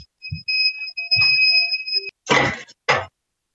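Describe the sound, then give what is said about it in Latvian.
A laboratory autoclave sterilizing growth media for meristem plant culture beeps with a steady, high-pitched electronic tone that holds for about two seconds, then cuts off. A couple of short, noisy rustling bursts follow. “Vienu mirklīt man jāizslēdz, ir viens aparāts, kas pīkst.”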